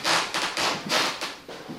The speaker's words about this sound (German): Und das ist hier im Schillerhaus, deswegen die knarrenden Dielen, dasselbe Phänomen.